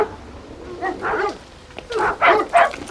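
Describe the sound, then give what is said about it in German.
A dog barks in short, sharp bursts: a brief cluster of barks, a pause, then three louder barks in quick succession, with no one talking. “Deine Hunde kennst du doch schon.”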